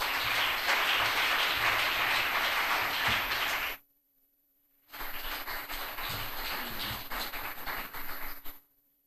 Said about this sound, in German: Fünf Minuten, Bühne frei, jetzt für Nadja Bucher. Applaus für Nadja Bucher.